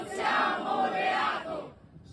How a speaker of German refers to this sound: Die LGBT-Plus-Gemeinschaft Schwule, Lesben und Transgender hatte vor der Sommerpause in Rom zur Kundgebung gegen Meloni aufgerufen. Ein paar hundert Menschen kamen und riefen, wir sind Familien, kein Verbrechen.